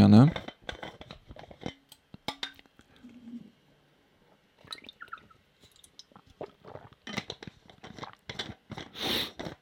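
Someone takes a drink of water: soft mouth clicks, a faint gulp and swallowing sounds, a brief clink, then wet smacking and breathy noises, all fairly quiet with no speech.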